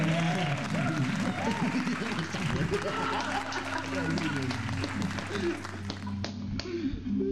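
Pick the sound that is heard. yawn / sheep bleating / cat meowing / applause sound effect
applause sound effect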